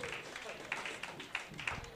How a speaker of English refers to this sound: Please, big round of applause for my friend and yours.